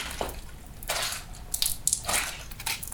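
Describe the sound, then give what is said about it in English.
Wet, squelchy squishing of a soaked chamois, the cloth used to dry a car, squeezed at a microphone as Foley for blood and guts: several irregular squeezes with slick, gooey crackles, like gory flesh sounds, heard alone without any talking. “A wet chamois and a microphone can be so many different things, mainly blood and guts or all those kind of horror sounds that you make.”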